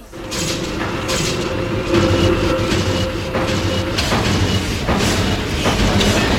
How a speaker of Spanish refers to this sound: Y, os traigo, eh, por ejemplo, esta pieza de música concreta, mira.